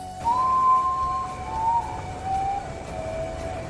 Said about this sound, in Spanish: Un reflejo rojo y oro teñía las nubes y como venido de lejos, se oyó el grito lastimero del Urutaú.